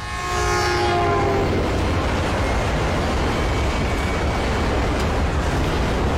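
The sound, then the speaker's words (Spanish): A heavy freight train of the kind migrants ride rumbles past, its loud horn blaring with stacked harmonic tones at the start before fading into a steady roar of wheels and cars. “Esa bestia es el nombre que le dan los eh, migrantes que, cogen el, tren que recorre toda la espina dorsal”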